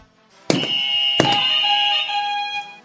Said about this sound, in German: Dazu werden sie auf ihre Buzzer klicken. Bitte testen.